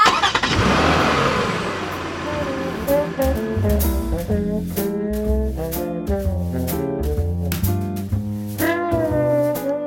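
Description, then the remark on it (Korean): A rented convertible car, top down, on a fine day: its engine turns over with a loud burst, then revs and pulls away, its pitch rising and falling in steady sweeps as it accelerates through gears, with no voices. “오빠 오빠 그래도 이왕 빌린 거니까 뚜껑 열고 신나게 가자.”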